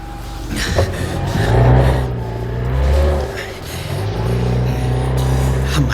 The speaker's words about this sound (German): werfen Sie den Motor an. Zum Befehl.